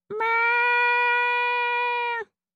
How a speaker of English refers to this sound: And sure enough, halfway in the presentation, I hear, Meow! you know, I'm two rooms over, and they hear it, and I go, I'm so sorry. They go, it's fine. It didn't deter from the audio that much.